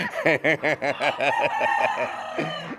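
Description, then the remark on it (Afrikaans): A rapid series of chicken clucks, about seven quick rhythmic calls, followed by a longer drawn-out cackle; no one speaks. “Hoender liefde.”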